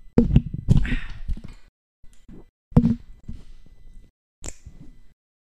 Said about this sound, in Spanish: Uy. Así le hice más o menos y así tiré el agua. Hice un desvergue aquí, pero ya andamos X, ya no hay agua, ya estamos bien.